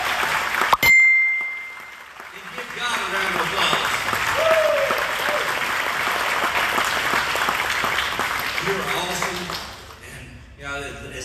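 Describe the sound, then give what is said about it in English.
An audience breaks into loud, steady applause for visiting singers. It lasts about eight seconds before fading, with a few voices calling out through it; a short ringing ding sounds just before the clapping begins. “Each one of them, give them a round of applause.”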